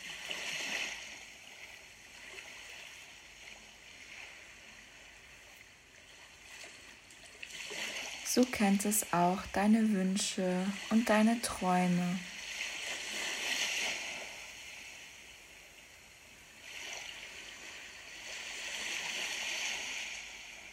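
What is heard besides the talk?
flowing water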